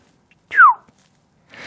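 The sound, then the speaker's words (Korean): A single short, downward-sliding pop made with the mouth, imitating a charger cable being pulled out, loud, followed by a brief hiss of breathy noise. “그리고 빼는 소리.”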